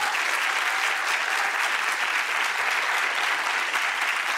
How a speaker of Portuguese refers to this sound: Vamos aplaudir os nossos campeões. Eles vão entrar por ordem inversa a que pegaram o bastão. Quem passou a, a reta final vai entrar primeiro, depois quem passou o bastão, até o que largou.